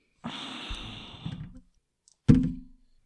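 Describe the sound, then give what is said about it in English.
A sustained rattle of dice being shaken for over a second during a tabletop game, then a brief pause and a single sharp clatter as they land and settle on a seven. No one speaks. “Seven on the dice.”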